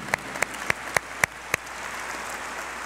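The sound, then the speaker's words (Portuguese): An audience applauds the word and gift of the Lord: six sharp, evenly spaced claps ring out over a steady wash of hand-clapping, which carries on as an even roar once the distinct beats stop. “Você pode aplaudir essa palavra e esse presente do Senhor?”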